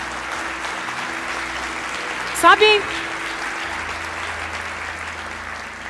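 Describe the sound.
An audience applauding the Lord with steady, dense clapping that fills the whole stretch, with a brief spoken word and a short burst of louder sound partway through.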